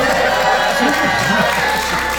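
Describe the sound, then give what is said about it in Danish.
A live audience at Lygten Station in Copenhagen cheers and claps in a steady, dense burst of noise, with overlapping shouts and voices rising from the crowd for a couple of seconds. “Jeg sagde et veloplagt publikum.”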